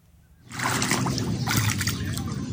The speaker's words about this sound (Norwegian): Dette er ganske fersk lyd fra Øst-Darfur. Store mengder vann preger denne sudanske regionen, som ligger langs grensa til Tsjad.